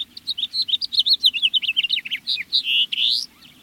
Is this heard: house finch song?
yes